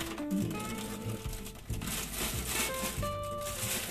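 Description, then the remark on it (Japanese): Crinkly rustling of a bag of loose tea leaves being handled and shaken as about 6 g of tea leaves are taken out to make cold-brew black tea, a steady crackle running throughout, with a voice faintly present underneath. “私の投稿日には 6g の茶葉を投稿日にしまっちゃったガサガサ出して。”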